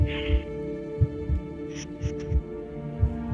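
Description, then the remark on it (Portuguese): A steady heartbeat thumps low, paired beats repeating roughly every second over a constant droning hum, with faint high chimes briefly in the background. “eu vou, eu, eu vou guardar isso com, do som do coração.”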